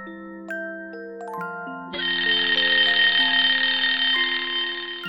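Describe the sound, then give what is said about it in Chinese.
A few short, stepped tones give way to the loud, continuous, shrill metallic ringing of an alarm clock bell going off, rattling on steadily for several seconds, with no voices. “闹钟响了，熊妈妈坐起来，揉揉眼睛。”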